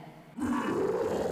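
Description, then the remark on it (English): A loud big-cat roar and growl, said to come from a cloned three-million-year-old cat, bursts in after a brief quiet moment, holding as one rough, rumbling sustained snarl to the end. “It's our first three million year old cloned kitty cat.”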